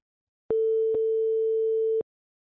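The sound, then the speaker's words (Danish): A single steady telephone ringing tone, one long, clear electronic beep lasting about a second and a half, with faint clicks at its start and end and no voices; a Danish radio programme phoning the director of Divisionsforeningen. “Ham ringer vi til her.”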